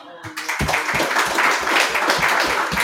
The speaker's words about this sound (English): Can we clap that up?